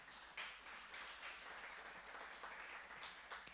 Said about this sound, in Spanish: En el nombre poderoso de Cristo Jesús, la iglesia dice, un fuerte aplauso al Señor.